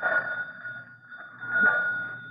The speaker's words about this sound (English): Well, here's something that looks like a doorbell, only it says pull. Well, go ahead, pull it. I am. Give me time. Oh, gosh, what a funny sounding doorbell.